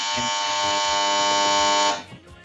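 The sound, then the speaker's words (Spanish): A telephone rings with a loud, steady electronic buzz, a harsh harmonic tone that holds for about two seconds before cutting off abruptly, leaving faint low rustling behind. “Mamá, teléfono.”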